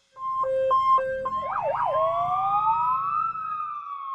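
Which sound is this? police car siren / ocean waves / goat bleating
police car siren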